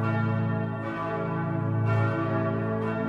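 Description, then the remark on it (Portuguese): Church bells ring out in a dense, sustained peal, overlapping tones swelling with fresh strikes about every second or so, loud and resonant with no voices present. The bells ring for Sunday masses on 15 November, as permitted by Winston Churchill, then prime minister of England. “Diante das mudanças nos rumos da guerra e a possibilidade da vitória britânica, o então primeiro-ministro da Inglaterra, Winston Churchill, permitiu que os sinos tocassem nas missas do domingo do dia 15 de novembro.”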